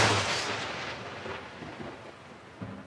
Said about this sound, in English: Oh, is it raining? No, that just happens anytime I say inexplicable storms. Inexplicable storms!